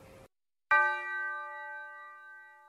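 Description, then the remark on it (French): A single clean bell sample strikes after a short pause in a boom bap beat, its bright metallic tone sustaining steadily and fading only slightly over a couple of seconds, clear with nothing else playing. “Il reste une chose, c'est une simple cloche que j'aime bien mettre.”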